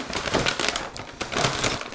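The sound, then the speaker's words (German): Crinkly rustling of grocery bag number 17, holding vegetables and herbs, being handled, with dense bursts of crackling that continue steadily over two seconds, no voices. “Wir haben dann erstmal die Tüte Nummer 17.”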